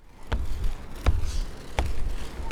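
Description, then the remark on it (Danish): Someone jumping on a trampoline that belongs to a school in Vesterbro, Copenhagen, set out on the sidewalk beside the school: four steady, springy thumps land about every 0.7 seconds, fairly loud, with a low rumble between bounces and no talking. “Jeg står og hopper på en trampolin, der hører til en skole på Vesterbro.”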